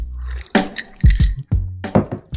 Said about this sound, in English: I poured a strong drink.